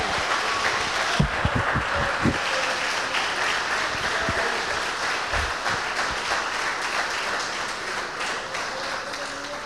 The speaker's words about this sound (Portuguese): Levante a mão e aplauda o cordeiro bem forte.